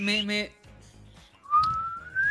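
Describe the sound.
A person whistles a single long note that slides steadily upward in pitch, fairly loud, after a brief voiced sound and some soft breathy noise.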